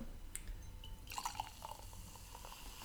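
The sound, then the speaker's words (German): A fizzy drink being poured, heard faintly: soft trickling with scattered crackling pops and little bubbly plinks, busiest in the middle, then easing off. No one speaks. “Es, hat noch ein bisschen Sprudel, das ist schon interessant.”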